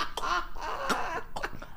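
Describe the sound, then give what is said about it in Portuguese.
A voice imitates a chicken clucking with a quick run of nasal, squawky bursts, fairly loud, lasting under two seconds. “assim a galinha.”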